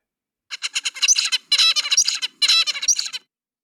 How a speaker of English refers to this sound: That is an adult finch. Wow. Adult zebra finch. All right. Do we know what a zebra finch looks like? An adult zebra finch. Yeah. So they're kind of um, brown. They've got like stripy heads.